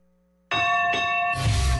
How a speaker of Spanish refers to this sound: Suena la campana, comienza el primer asalto del combate.